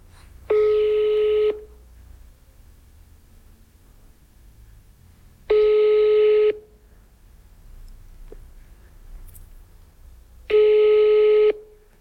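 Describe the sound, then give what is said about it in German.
Telephone ringing tones: three identical one-second electronic rings spaced about five seconds apart, clear and steady over a quiet low hum, with no one speaking. “ich wollte Matteo deine Combox zeigen”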